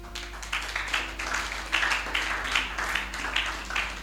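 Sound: audience clapping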